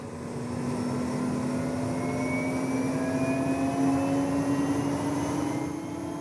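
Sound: helicopter flying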